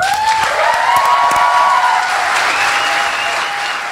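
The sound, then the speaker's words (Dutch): A crowd claps loudly and steadily for about four seconds in applause for a musician, a dense wash of many hands, with a thin sustained whistle-like tone riding over the first half. “Applaus voor …!”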